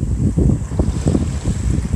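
Steady ocean waves wash against the shore, a continuous low rumbling surge with repeated swells and a windy hiss over it. No one speaks.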